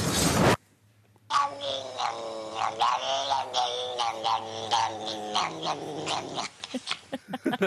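A cat lets out a long, drawn-out yowl lasting several seconds, wavering in pitch and fairly loud, ending in a few shorter broken cries. A brief burst of noise comes just before it.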